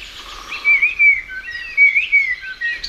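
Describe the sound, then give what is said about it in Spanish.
A blackbird sings a flowing, fluted melody of clear whistled phrases that rise and fall, repeating a short motif twice, distinct over faint low background rumble. “este mirlo cantará así y todos los mirlos y mirlas de alrededor”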